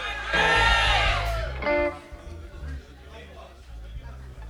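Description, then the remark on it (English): A live crowd shouts "Irie!" back in unison to a performer's call, a burst of many voices lasting under two seconds, then fading into murmuring and scattered voices. “If you're feeling irie, let me hear you say, "Irie!"”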